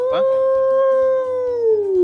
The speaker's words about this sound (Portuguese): É o lobo? É o lobo. Tá, pelo jeito tá chegando, tá chegando.